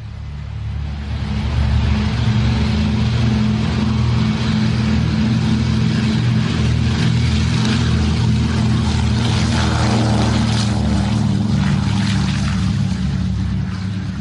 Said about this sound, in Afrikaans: Dis 'n DC-3A wat 'n passasiersvliegtyg is wat afgelewer was aan United Airlines in 1938. Maar dit sal al dan die oudste DC-3 in Suid-Afrika maak. Wel, dit gaan in alle waarskynlikheid een van die oudstes ter wêreld wees wat vlieg.